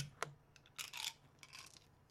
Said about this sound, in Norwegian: Så man kan jo bare trille en d DT, vet du. Det er det rette. At eh, da får man fra 1 til 10. Så jeg kaster, jeg kaster en terning